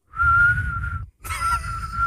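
A person whistles in two breathy bursts: a steady held tone, a brief pause, then a wavering note over airy hiss. No talking.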